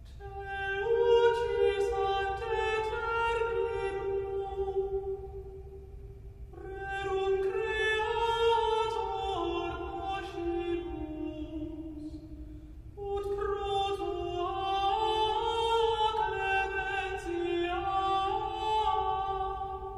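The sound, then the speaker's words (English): Thomas Tallis's Te lucis ante terminum (1575), a Renaissance choral piece combining Welsh harmony and Roman chant: voices hold long, smooth sung notes in three phrases, each one swelling and then easing off before the next begins. Nobody speaks. “Te lucis ante terminum is not just a religious choral piece first”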